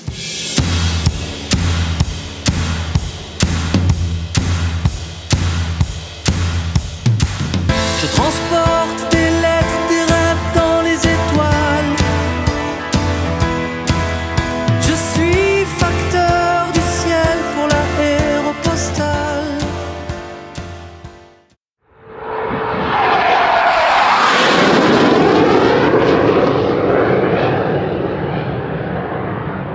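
A French pop song with a steady, driving beat and layered melody plays loudly for about twenty seconds, then cuts to a brief silence followed by a loud, sustained aircraft engine roar.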